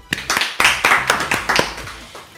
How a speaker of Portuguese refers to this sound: Então, para começar, ó, palmas para você